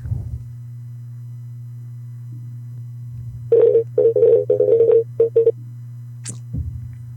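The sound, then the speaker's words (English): A phone call being placed: a steady low dial tone hums throughout, then a quick run of about ten short dialing beeps, followed by a brief high blip. No one speaks. “We calling, baby.”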